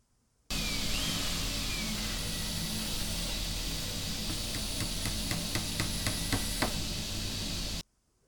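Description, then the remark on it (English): Power tools run in a steady, noisy mechanical roar with a faint high whine, coming from the direction of the kitchen and likely the garage. Partway through, a quick series of rhythmic knocks or taps joins in before the noise stops. “Did you hear the power tools?”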